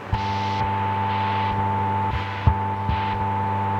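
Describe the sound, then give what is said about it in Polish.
Steady diathermy radio interference, two such signals, at the end of the band on a CB radio channel: a constant buzzing hum with strong low harmonic tones and a high whine, overlaid with hissing bursts that pulse on and off roughly every half second, plus occasional clicks. “O, to są te diatermy. A co to jest właściwie? Do czego to służy? Do niczego. To jest zakłócenie.”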